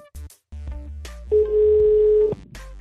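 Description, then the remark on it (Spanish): A telephone dial tone holds steady and loud for about a second, with short clipped tones and line noise before and after it as a call is placed. “Así que lo llamamos y le pedimos que nos contara un poquito de cómo era conectarse a internet por teléfono a mediados de los 90.”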